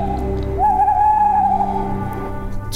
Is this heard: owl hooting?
yes